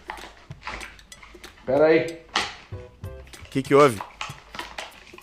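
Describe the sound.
Scattered rustling and clattering bursts as a poster is shifted and hung back up in a better place, the handling noises coming in short irregular bursts between people talking.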